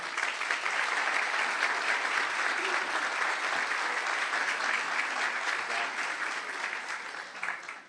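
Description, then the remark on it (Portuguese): Warm, sustained applause from a church audience welcoming a guest preacher up to the front, a dense steady clatter of many hands clapping at an even loudness for several seconds before tapering slightly at the end. “Então eu queria que nós o recebêssemos aqui com palmas calorosas, nosso irmão querido, pode vir aqui.”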